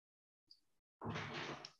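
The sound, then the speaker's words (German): A door swings open: a faint brief squeak, then a louder, sustained rattling rush of movement lasting nearly a second, with no voices. “jetzt bin ich kurz rausgekommen, mir ist nämlich gerade die Tür aufgegangen.”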